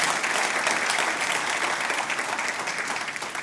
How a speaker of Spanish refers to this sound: Ah, dele ese fuerte aplauso, de verdad, de verdad.